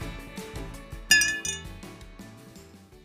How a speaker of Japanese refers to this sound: じゃ乾杯しよっか牛乳で乾杯